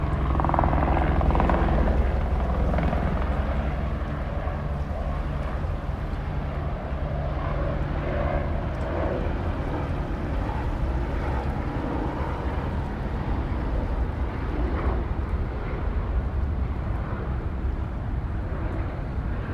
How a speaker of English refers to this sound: You round the bend toward the water. helicopter is passing over the Potomac above you.